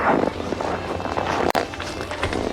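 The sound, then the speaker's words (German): Casual footsteps of Justus walking toward two women at the spectator stands, at an unhurried, even pace, set against a steady wash of background noise, with one sharp click partway through and no one talking. “Justus entdeckte Karen und Nicola an der Zuschauertribüne und ging lässig auf die beiden Frauen zu.”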